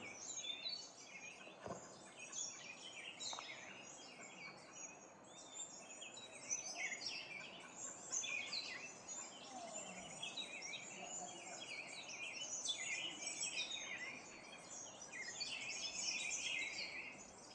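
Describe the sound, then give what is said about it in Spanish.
A dense chorus of birds singing and chirping continuously outdoors in nature, many calls overlapping, with a soft steady rush of background ambience beneath, where a river roars far off beyond the birdsong, and no voices. “Yo no sé realmente si el micrófono lo pueda captar y tú estés escuchándolo, pero a lo lejos, más allá del canto de estas aves, se escucha el rugir del río.”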